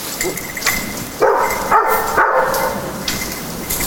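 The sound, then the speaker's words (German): A search dog named Buddy barks during training near the Danube, in a small wood on an island, while looking for a person hidden under branches: a short run of about three loud, sharp woofs spaced roughly half a second apart, with lighter yips before and after and no one speaking. “Herausforderung dann auch für den Zughund”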